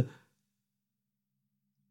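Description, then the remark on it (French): A single dull, short knock on a door as Dante knocks, fading quickly into near silence with only a faint low hum afterward. No one speaks. “Et voici Dante qui frappe à la porte.”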